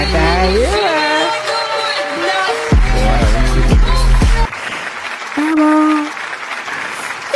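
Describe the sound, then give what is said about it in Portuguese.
A loud crowd cheers and shouts, with whooping voices rising and falling over a dense roar and some clapping, continuous throughout, with deep thumps underneath. “senhoras e senhores, eu quero ouvir uma gritaria pro meu, pro seu, pro nosso gaúcho predileto”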